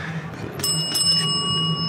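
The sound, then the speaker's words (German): A small bell is struck once by an arm of a cocktail machine, signalling that the cocktail is ready; its bright metallic ring sustains and slowly fades over a low mechanical hum, clear. “Und jetzt hat ein Arm, jetzt hat ein Arm auf eine Glocke gedrückt und äh, hat mir bedeutet, der Cocktail ist fertig.”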